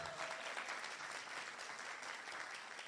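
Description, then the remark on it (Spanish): Steady audience applause from a church audience, for the preacher's visiting family from Orlando, Florida, fills the space: a dense wash of many hands clapping at once, sustained and fairly loud for the whole stretch with no voices standing out. “Aquí está mi familia desde Orlando, Florida. Un aplauso.”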